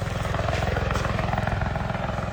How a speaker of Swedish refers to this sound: Nu landar helikoptern.